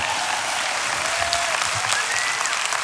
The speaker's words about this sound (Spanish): Un aplauso a Jesucristo ya, por favor.